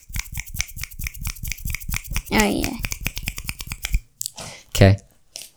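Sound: finger snapping as applause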